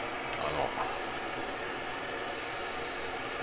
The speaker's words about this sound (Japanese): ちょっと換気扇うるさいけど